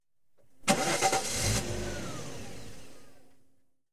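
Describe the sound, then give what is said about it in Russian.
A car engine cranks but fails to start, with a quick burst of rough, sputtering turns, then trails off into a fading mechanical drone, with no voices. “Двигатель не заводился. Да, не везет так не везет. Он сделал еще одну попытку.”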